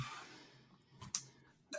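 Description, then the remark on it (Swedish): A few quiet, sharp clicks from a ballpoint pen, spaced apart, with a soft breathy hiss and faint room noise in between. No one speaks. “Du måste kasta bort din penna”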